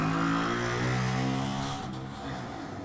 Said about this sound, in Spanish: No entiendo por qué pasan tantas pinches motos. van tres motos. Van tres motos seguidas, no puede ser está ya.